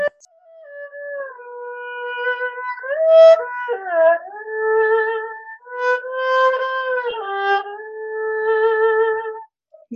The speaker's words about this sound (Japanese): ありがとう。すごい素敵です。ありがとうございます。ポルタメントって言うんですけど。